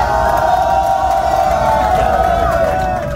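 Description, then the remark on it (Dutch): A large crowd of football fans sings, cheers and shouts continuously, urging their team to victory, a dense wall of voices roaring together at steady, loud volume with no pauses. “Gewoon zingen en de jongens naar de overwinning schreeuwen!”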